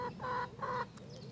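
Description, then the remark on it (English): Hens clucking, with two drawn-out, nasal clucks in quick succession followed by softer, quieter chatter; no voices present. “Seeing them cluck about and get on with each other.”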